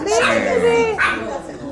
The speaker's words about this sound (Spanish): A ver, es el primer perro que me odia en mi vida. No, chiquita. Les juro que siempre me da miedo. Aunque. Se puso nerviosa.